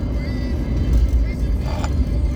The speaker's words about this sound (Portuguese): o carro botou uma velocidade inacreditável. Calma aí, calma aí, fera, calma aí.